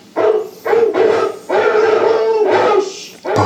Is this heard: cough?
no